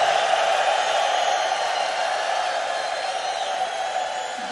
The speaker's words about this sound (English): Now I heard that the folks in this room can make more noise and more applause than anywhere in the world.